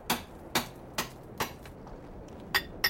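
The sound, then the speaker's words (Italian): Hammer blows breaking through a recently built concrete wall protecting a tomb, to open a way to the mummies' hiding place: four sharp, evenly spaced strikes, a short pause, then two more quick hits. Each is a crisp, bright crack with no talking. “È stato messo di recente per proteggere la tomba, ma abbiamo un permesso speciale per aprirci un varco in questo muro di cemento.”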